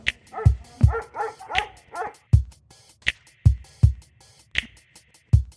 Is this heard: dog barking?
yes